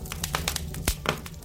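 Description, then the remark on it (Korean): A campfire of burning firewood crackles with irregular sharp pops and snaps, about ten in quick uneven succession, over a steady low rumble with no voices, in cold November weather, with sweet potatoes and a potato put in to roast. “자, 장작 찬, 타는 소리 들리시죠?”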